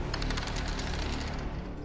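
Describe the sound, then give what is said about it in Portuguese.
A rapid burst of pistol gunshots, several sharp, loud cracks in quick succession over a dense, noisy background, with no voices. “Ela, ele deu um tiro, tipo, uma pistola.”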